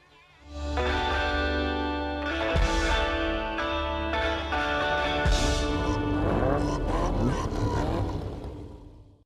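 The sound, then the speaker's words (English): An Aston Martin sports car engine roars loudly, a steady growling drone that surges with a few rising revs toward the end before cutting off. “I'm pretty sure this is where I'm, it's the Aston Martin, I think, right? So we get that yeah. sound effect that comes in really late.”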